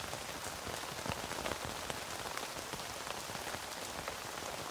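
Steady rain patters on a tent, a dense, even hiss of countless drops with scattered sharper taps, holding constant without pause and no voices.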